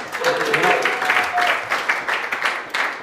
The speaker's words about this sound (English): That is so good. Can we give it a round of applause?